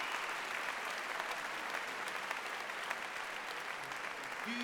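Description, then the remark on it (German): An audience claps steadily, a dense wash of many hands applauding at an even, sustained level throughout, with no one speaking over it. “Gib dir einen großen Applaus.”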